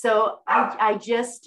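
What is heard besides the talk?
dog barking in background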